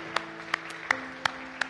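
Audience applause for Jesus Christ in a steady, rhythmic beat, five sharp claps evenly spaced about a third of a second apart, over a low, sustained humming tone. No one speaks.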